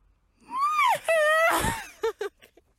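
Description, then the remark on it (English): A strained coughing fit: high, wheezy, whooping gasps, then a harsh rasping cough and two short, sharp coughs trailing off. The sounds are loud and occur alone, with no talking. “I'm coughing it out.”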